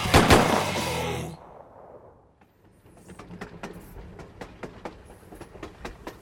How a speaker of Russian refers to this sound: Выстрелы грянули одновременно.